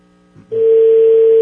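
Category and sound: signal or alarm, telephone line tone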